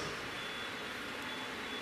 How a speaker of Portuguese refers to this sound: O carro não foi roubado, fiquem tranquilos, só disparou o alarme.